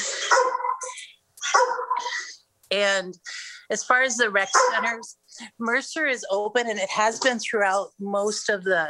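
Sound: dog barking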